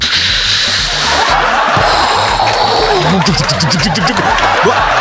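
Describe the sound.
A voice imitates a landing cargo plane, holding a loud, steady, breathy roar with a rough, pulsing low rumble and wavering voiced swoops near the end. No actual words are spoken.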